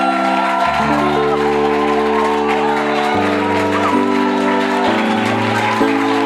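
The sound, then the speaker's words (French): An audience at a church worship service cheers and claps for God in a dense, continuous wash of noise, with sustained keyboard chords shifting underneath throughout. “Je voudrais que tu l'acclames de tout ton cœur.”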